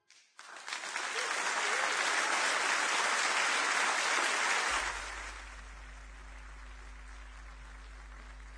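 A concert crowd in Montevideo bursts into loud, sustained applause that holds steady for about four seconds, then fades quickly into a low, steady hum.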